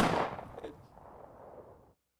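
A single loud gunshot sound effect cracks out at the start, followed by a rumbling echo that fades away over about two seconds, with no one speaking.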